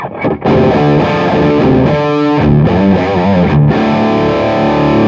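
Electric guitar played loudly through a distorted amp with the gain set at 12 o'clock, thick growling chords and short riffs ringing continuously for several seconds after a brief opening stab.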